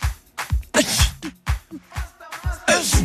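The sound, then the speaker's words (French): Loud sneezes from someone who stayed too near the air conditioning burst out repeatedly over a steady thumping beat. They land almost like part of the rhythm in a song-like mix, with no one talking. “Ça, c'est quand on reste trop à côté de la clim. Vous l'entendez éternuer”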